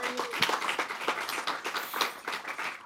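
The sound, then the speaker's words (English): A crowd applauds a speaker's remarks at a discussion, with many overlapping hand claps forming a steady, dense patter that holds at a moderate level for the whole few seconds, with no voices over it. “I hope you hear the applause.”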